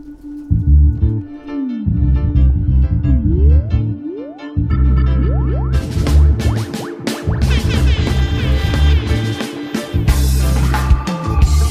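A loud, bass-heavy newly released song, a Portuguese-language collaboration out about ten days, plays with a steady groove and rising sliding tones; about halfway through, bright full-band instruments kick in and fill out the mix. No singing is audible yet.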